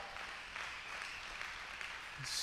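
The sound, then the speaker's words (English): A steady round of audience applause at a church, welcoming a new service coordinator on staff; a dense wash of many hands clapping together at a moderate level for a few seconds, with no talking over it. “So, uh, and then also, if you can give a rousing uh, round of applause.”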